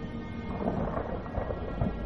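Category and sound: nature, torrential rain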